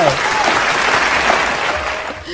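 A burst of crowd applause played as a sound effect, dense rapid clapping that stays loud and steady for a couple of seconds before easing slightly at the end.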